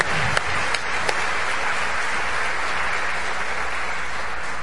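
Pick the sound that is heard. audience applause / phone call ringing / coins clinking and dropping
audience applause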